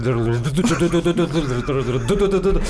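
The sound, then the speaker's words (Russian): A voice imitates a car engine that starts vibrating while driving, a steady, buzzing hum that stutters and shakes in uneven pulses, fairly loud, shifting pitch partway through. “смотри, ты едешь на машине, она у тебя работает ровно, потом возникают вибрации такие, А потом, а потом тройной такой.”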